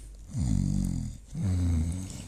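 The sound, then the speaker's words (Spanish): A voice imitates snoring: two drawn-out, rumbling snore sounds in a row, fairly loud, with a short pause between them and no other talking. “Y hacían ronca para que estén dormidos, porque roncan cuando duermen.”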